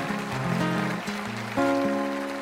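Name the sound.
audience applause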